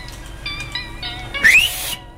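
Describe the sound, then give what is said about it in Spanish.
A person mouth-whistles to imitate a referee's kickoff whistle: a few wavering, breathy tones, then a short upward sweep buried in a loud, spitty hiss. Fairly loud, with no talking. “Chiflé como el orto, escupí todo.”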